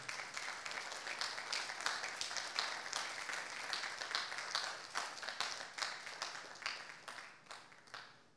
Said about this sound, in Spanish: Entonces, dale una ofrenda de palmas al rey.